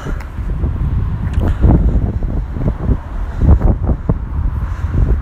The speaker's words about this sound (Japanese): ここは本当ねビル風がすごいんですよ